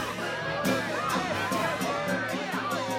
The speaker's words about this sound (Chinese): 不一会儿，不远处传来一阵人群的叫喊和铜锣的敲打声。